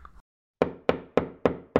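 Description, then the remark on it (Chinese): Five sharp knocks on the door of a castle, a little bear knocking, evenly spaced at a steady rhythm, each with a hard attack and short decay, following a faint brief murmur and a pause of silence. “哦，小熊敲敲门， 叩叩叩，有人在家吗？”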